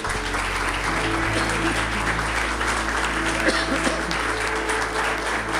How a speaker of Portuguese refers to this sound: Vamos aplaudir nosso Deus, vamos.